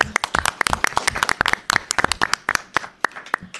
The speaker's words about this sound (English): Welcome. Round of applause.